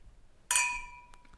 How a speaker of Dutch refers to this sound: Wij gaan nog één keer klinken. Gaan we doen.